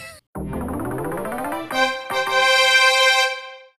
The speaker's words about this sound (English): You know what that sound is? That's the that's the knowledge bell. That's the knowledge jingle.